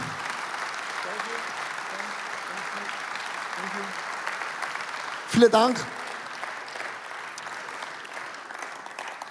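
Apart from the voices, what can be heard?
audience applause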